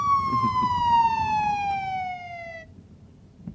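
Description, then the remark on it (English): A police car siren from police behind a car being told to pull over holds a single loud, steady tone that slowly slides downward in pitch for a couple of seconds, then cuts off, leaving a low rumble of road or engine noise. “Pull over, everybody. The cops are behind us.”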